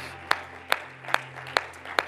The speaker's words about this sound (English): Would you clap your hands one more time and rejoice? Amen.